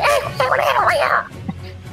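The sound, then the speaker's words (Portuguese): A voice imitates shrill goblin screams coming from the audience of an arena, a burst of high, warbling, squealing cries lasting about a second, loud, before dropping off into near quiet. “Algum, alguns seres provavelmente te enxergam ali na, na, na plateia e você ouve uns gritos de goblins.”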